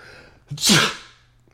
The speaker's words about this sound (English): he sneezed, as you perceive. It is not reprehensible for anyone to sneeze anywhere.